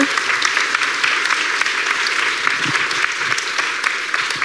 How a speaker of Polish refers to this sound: Która, to jest osoba z naszych rozmówczyń, ale wielkie brawa dla tej osoby.